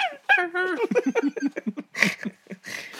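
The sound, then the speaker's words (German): A voice imitating the dog-like noises young men make, with a run of quick yelping, barking noises, sliding in pitch, followed by a couple of breathy, hissing bursts. “und die machen dann immer so Geräusche wie so Hunde.”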